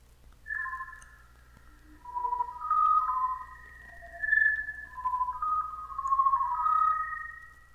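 Eerie outer-space sound effect downloaded from a NASA portal: overlapping electronic whistles glide and waver in pitch over a steady low rumble, swelling and fading in waves, with no voices.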